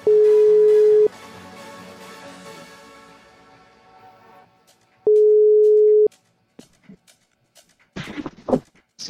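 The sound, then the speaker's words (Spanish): A telephone ringback tone sounds twice while a call is placed to friends during a live broadcast, each steady buzzing tone lasting about a second and separated by a long pause, followed by a brief clatter near the end. “Tuve un pequeño de fallas técnicas, pero ahorita ya vamos a empezar otra vez este, a hacer la llamada con mis amiguitos.”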